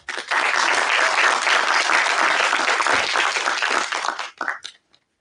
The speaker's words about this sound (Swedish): Välkomna upp, ge dem en varm applåd.